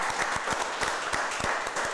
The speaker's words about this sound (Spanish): Un aplauso para él. Que se nos va.